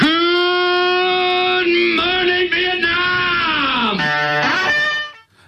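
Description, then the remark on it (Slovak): A man lets out one long, loud, sustained scream, mimicking a scream from a song; his voice holds steady, then wavers and dips in pitch before cutting off, with nothing else around it. “takže ja neviem, či mám ja zakričať, ale nemám na to asi taký ten fond, takže to skúsim ešte aspoň, aspoň takto zakričať raz.”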